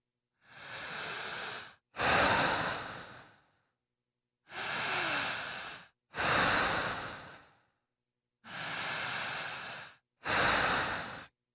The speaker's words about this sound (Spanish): ¿Qué adjetivos calificativos se le pueden poner a esta respiración? Lenta, larga, honda y profunda.